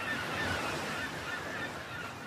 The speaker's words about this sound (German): Hör dir den Klang des Meeres an, während die Wellen über den Strand rollen und wieder zurück ins Meer kehren.